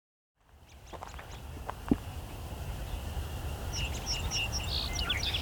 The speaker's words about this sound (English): American robin, and song sparrow. Lots of song sparrows. Putting up their last songs of the night.